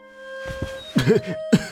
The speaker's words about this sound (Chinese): 那个被踹的人咳嗽两声